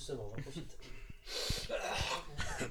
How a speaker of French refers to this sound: Oui, t'as le droit de tousser pendant ce temps